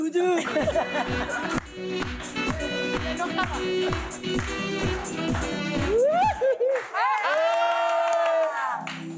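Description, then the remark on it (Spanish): A live audience shouts and cheers loudly, with rhythmic bursts of voices like chanting, then rising whoops and sustained yelling near the end. “No, no griten.”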